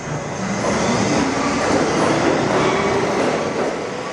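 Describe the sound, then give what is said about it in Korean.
A New York City subway train rumbles past, a steady loud roar of wheels and rails with faint metallic clatter, filling the whole few seconds without any voices. “사람들은 지하철을 타고 어두운 지하를 통과하지만 미술 작품들을 통해서 밝은 기운을 느낄 수 있으니까요.”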